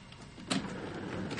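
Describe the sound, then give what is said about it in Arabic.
A chair is brought over to sit on, dragged and shifted, with a short scraping burst partway through followed by a steady low rumble of movement. No one speaks. “اصبر خلينا نجيب الكرسي لأني كنت قاعد”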